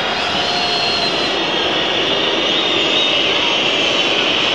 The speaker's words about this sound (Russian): Гудят болельщики «Зенита». Недовольны они тем, как развивается эта встреча, тем, как тянут время футболиста Бордо.